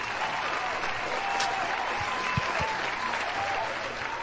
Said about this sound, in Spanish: Un aplausito. Ese sí lo tenemos.